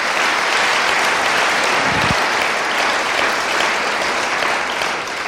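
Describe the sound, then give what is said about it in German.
Sustained audience applause at a Christian church gathering, dense and steady clapping from many hands at an even loudness throughout, with no speech over it. “Komm, wir geben mal einen Applaus.”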